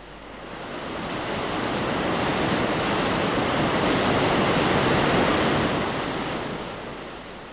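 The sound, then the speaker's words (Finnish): A dense, continuous roar of rushing river rapids at Imatra, swelling in from quiet, holding loud and steady, then easing away again. No voices are heard over the churning water. “Olemme näiden minuuttien aikana siis käyneet tervehtimässä vanhaa kunnon Imatraa, jonka eiliset pauhut vielä kerran saamme kuulla.”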